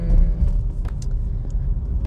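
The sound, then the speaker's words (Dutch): Steady low rumble of road noise inside a moving car, a constant dense hum filling the low end with faint brief ticks and rattles above it, no voices. “Dit keer in de auto. Dat hoor je waarschijnlijk ook.”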